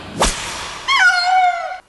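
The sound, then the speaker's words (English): A quick sharp swish, then a single drawn-out cat meow, fairly loud, sliding slightly downward in pitch before cutting off. No one speaks. “Here, kitty, kitty, kitty.”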